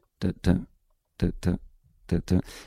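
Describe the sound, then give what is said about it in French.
A voice imitates the heavy footsteps of a polar bear walking about 15 metres away, with three pairs of low, thudding vocal beats separated by brief pauses, fairly loud, with nothing else around. “Donc on est à 15 mètres et on entend l'ours polaire qui marche et donc ça fait”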